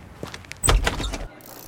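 A side door into Decathlon offices is pushed open: a few light clicks, then a solid mechanical clunk and brief rattle of the latch and frame before it falls quiet.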